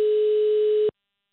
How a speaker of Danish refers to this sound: Nummer, du ringer til, er optaget. Jamen, læg på, ring op igen.